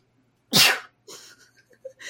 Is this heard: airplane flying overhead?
no